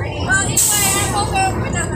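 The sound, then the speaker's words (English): Steady low engine rumble and road noise inside a moving bus, with a brief hiss of air midway and indistinct voices murmuring in the background. “I'm being disrespected on the bus.”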